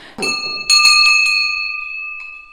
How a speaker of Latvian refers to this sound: To tad pazvanīja pats skolmeistars to zvanu. Nu, tad tas sasaukt, lai bērnu sasaukt atkal uz stundu, tad, protams, ir ar zvanu.